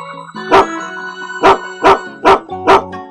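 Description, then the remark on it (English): A dog barks five times, sharp loud woofs spaced unevenly, the last four coming in quicker succession, over a steady backdrop of sustained musical tones. “I'm top dog, said the dog.”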